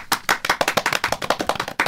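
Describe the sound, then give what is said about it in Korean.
Several pairs of hands clap in a quick, slightly uneven rhythm, a small burst of applause lasting a couple of seconds with no one talking over it, congratulating a reporter on receiving an award. “상을 받고 왔어요. 예. 박수.”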